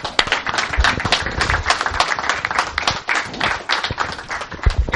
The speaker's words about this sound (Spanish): Bueno, pues esto es, amigos y amigas, Terora la Una, un aplauso, por favor, para todos ellos.